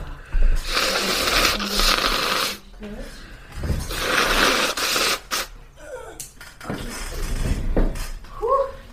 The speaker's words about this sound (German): Ja, ups, dann putze ich noch meine Nase.